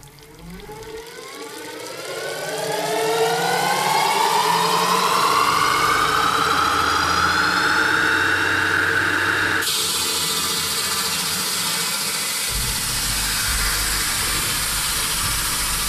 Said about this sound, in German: Und ich sage vorher, was passiert. Nämlich die Säge läuft an, mhm. es wird etwas gesägt und dann läuft sie wieder aus.